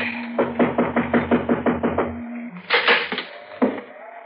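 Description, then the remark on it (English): Knocking on the front door of an old man's house from the porch: a quick, steady run of about eight raps, then a pause and a couple of louder, heavier knocks, with a faint low hum underneath. “I guess we knock.”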